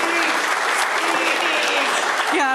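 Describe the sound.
A crowd claps steadily in loud, dense applause, with faint voices and cheers rising through it and a brief higher vocal sound near the end.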